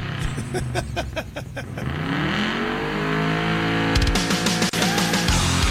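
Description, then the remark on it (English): A gasoline car engine revs in short bursts, then accelerates hard with a steadily climbing roar and a shift partway through, loud, with no one speaking. “EVs don't make this sound.”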